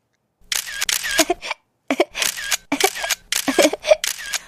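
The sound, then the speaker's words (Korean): A rapid burst of phone camera shutter clicks, crisp and fairly loud, firing in quick succession, pausing briefly, then continuing in another fast run of repeated snaps, as photos are taken at the Asian Games site in Hangzhou. “조금 더 찍을게요.”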